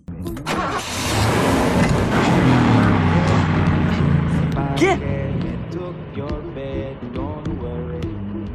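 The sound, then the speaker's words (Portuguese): A voice imitates a revving car engine, a rough, sputtering vroom that rises and falls for several seconds before trailing off into shorter bursts. “Pelo menos eu economizei gasolina.”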